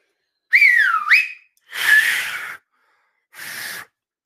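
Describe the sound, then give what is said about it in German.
People try to whistle together: a brief wavering whistle rises and falls, then two short breathy bursts of air follow, like attempts at whistling that come out as hissy blowing. No talking. “Wollen wir mal schön pfeifen zum Abschluss?”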